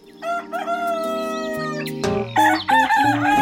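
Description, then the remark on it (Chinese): A young rooster crows in a long, wavering, high-pitched call, layered over steady low musical tones, with a louder burst of crowing toward the end. “小公鸡，喔喔喔，起得早，喔喔叫。”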